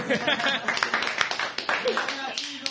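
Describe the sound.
A crowd applauds with quick, dense clapping that fills the whole stretch, mixed with overlapping voices and laughter.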